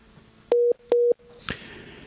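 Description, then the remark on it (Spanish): A telephone busy tone after a phone interview line to Caracas, Venezuela drops during a radio broadcast: two steady, mid-pitched beeps with short gaps, each starting and ending with a click, followed by a brief burst of line noise. “Nos ha salido el pito.”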